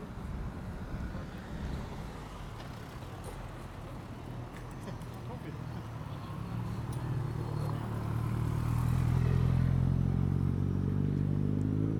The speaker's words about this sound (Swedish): nu står vi mitt på en cykelväg här och, och har svårt att fokusera bland alla bilar och cyklar. Och... Ja, precis. Det är ganska mycket folk i rörelse här nu.